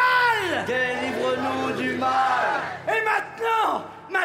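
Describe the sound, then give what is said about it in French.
An audience repeats a phrase back together in unison after a speaker, loud: one long drawn-out chanted line, then two shorter shouted bursts. “Levez-vous public. Et répétez après moi.”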